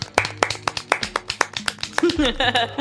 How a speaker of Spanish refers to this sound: Aplausos aquí, insértenlo.